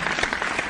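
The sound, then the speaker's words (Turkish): Steady clapping from a small group, a dense patter of overlapping hand claps at an even moderate loudness throughout, with no voices. “Şu an e, alkış duyuyorsun benimle birlikte.”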